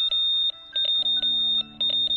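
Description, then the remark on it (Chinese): A rapid Morse code signal of three V characters, sent by an underground radio station in Shanghai to Xibaipo in the early morning of 30 December 1948 as an agreed sign of danger: a high, thin tone keyed on and off in quick bursts of short and long beeps, with a steady low hum entering partway through. “接着，他又听到了十分急促的三个 V 字电码”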